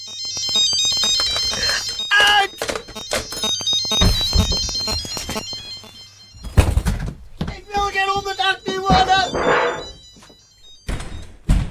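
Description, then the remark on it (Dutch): A mobile phone ringtone plays a bright, electronic Bach melody in quick repeated phrases, mixed with people talking and a few dull thumps before the tune cuts off and briefly returns. “Weer een telefoon. Ik hoef geen telefoon.”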